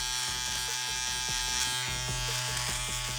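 An electric shaver buzzes steadily as it removes facial hair, its motor hum broken by short rhythmic dips and crackles as it passes over stubble, with no one talking.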